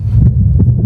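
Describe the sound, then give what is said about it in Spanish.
A recorded, amplified strong heartbeat, a digital sound representation of the strength of the heart: deep, muffled thumps pulsing loud over a low, rumbling hum, with no voices. “Tengo que reconocer que no veo una gran diferencia, por lo menos yo con mis oídos profanos, con la fuerza del corazón, que suena así.”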